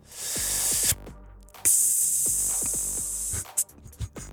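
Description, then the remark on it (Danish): A singer hisses steadily through the teeth as a breathing exercise for singing, like escaping gas: a short hiss, a brief pause, then a longer, loud sustained hiss, ending with a few soft clicks. “Det lyder som, der er gasudslip.”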